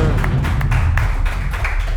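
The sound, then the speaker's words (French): A show audience breaks into steady applause welcoming the show's sports contributor, a dense, continuous patter of many hands clapping at once that stays loud and even for the full two seconds, with no voices over it. “On donne bon bon applaudissement au collaborateur sportif”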